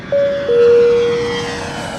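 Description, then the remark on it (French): An airplane taking off, its engine roar swelling quickly and holding steady, with a high sustained whine on top. Loud, with no voices. “Prêt pour le décollage.”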